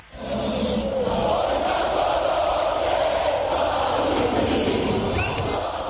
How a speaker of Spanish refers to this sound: Suenan todos en esta canción y en el grito patriótico de la celebración que se llama en Croacia Lije Palisi